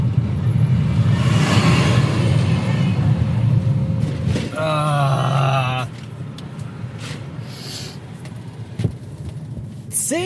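A steady low rumble of a car engine heard from inside the vehicle, at a traffic light at roadworks on a country road, runs throughout, with a brief warbling tonal sound cutting in midway before the drone settles slightly quieter.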